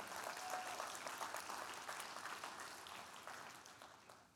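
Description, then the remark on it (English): A crowd applauds steadily to celebrate money invested in the community, a dense wash of many hands clapping at once that holds fairly loud throughout and tapers slightly toward the end, with no talking over it. “And I don't mind telling you, number one, I, I, would I think I think that's worth clapping for and to celebrate.”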